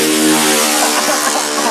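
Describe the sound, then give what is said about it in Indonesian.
A loud, steady engine drone, a buzzing motorcycle motor holding a fairly even pitch with slight wavering, idling or revving. “ada orang-orang yang sedang mendalami sufi di atas motor jadi kita maklumnya ya”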